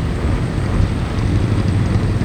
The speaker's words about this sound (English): and that's when the engine revved for a critical roar that made my eyes vibrate. I closed them and I plugged my ears. That was loud.